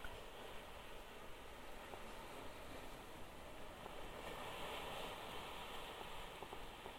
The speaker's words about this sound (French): La mer est agitée. La houle laisse les vagues se fracasser sur les rochers.